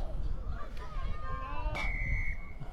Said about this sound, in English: And the whistle blows, and we are away here.